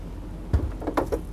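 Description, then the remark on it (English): A cabinet door in a camper shuts with a soft thud, followed by a couple of light clattering knocks as it settles, as things are put away to get ready for travel. No one speaks. “close any drawers and doors, and then close the cabinet.”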